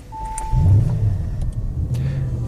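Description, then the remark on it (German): A powerful Audi RS6 V8 engine (4 litre, 600 PS, 800 Nm) rumbles with a deep, throaty low end, recorded inside the car, swelling briefly as if revved, then settling into a steady idle. No one speaks. “Und äh, ihr seid quasi live dabei, denn wir haben diese Folge im Auto aufgenommen.”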